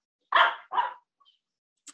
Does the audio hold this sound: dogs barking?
yes